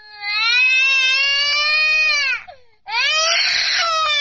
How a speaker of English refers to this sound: It's it's my sound effects, sound bites. If you're watching on uh, Periscope, it's just a little box here, and it just does various sound effects, like the baby sound effect.